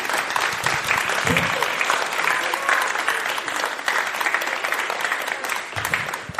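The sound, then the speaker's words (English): Sustained applause from an audience clapping to say thank you to someone for their work, a dense, steady wash of many hands clapping for several seconds at fairly even loudness, with a few faint low voices mixed in. “we can just kind of clap and say thank you for all that you've done.”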